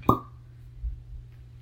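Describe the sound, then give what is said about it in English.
A single sharp cork pop as a wine bottle is opened with a regular, non-electric bottle opener, with a brief hollow ring that fades quickly, followed by quiet background hum and a soft low thump. “going to use a regular bottle opener.”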